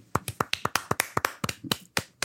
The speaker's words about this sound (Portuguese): E assim, eu quero só bater palmas para a Arlequina.